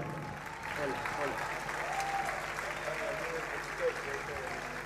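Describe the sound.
A crowd claps steadily for about five seconds for a guitarist at a Maradona tribute during the Mundial de Tango 2021, a dense, even wash of applause with a murmur of voices and a few faint whoops underneath.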